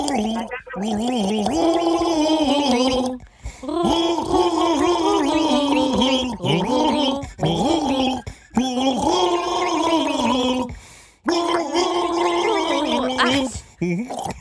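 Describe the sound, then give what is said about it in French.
A person gargles continuously while carrying the wavering melody of an English-language song, bubbling pitched tones in several long phrases broken by brief pauses for breath, loud. “Ben, du gargarisme mix.”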